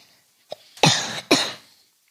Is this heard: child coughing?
yes